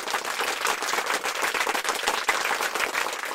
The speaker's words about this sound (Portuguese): Se você não se identifica com nada disso que falei, aquela salva de aplausos para Vossa Excelência.